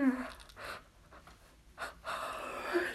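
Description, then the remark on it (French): A loud, open-mouthed yawn, voiced and drawn out, with breathy gasping inhales between and a second long groaning yawn at the end, made while stretching at the end of a yoga session. “grands soupirs, des grands bâillements, tout à votre aise.”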